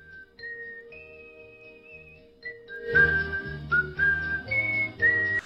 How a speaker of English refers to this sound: Dude, his whole channel is just him whistling. Right, here we go. Like, so this is the the whistler introduction.